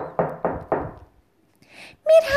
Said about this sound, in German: Der kleine Igel klopft kräftig an die Tür.